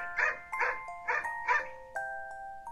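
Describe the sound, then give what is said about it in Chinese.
A dog named E.T. barks angrily four times in a quick, uneven burst, each bark harsh and loud, then the barking stops and a thin, steady whine-like tone lingers to the end. “却像是受害者，委屈地冲着我们大吼大叫，还不时地咧开嘴巴，露出他那尖尖黄黄的牙齿。”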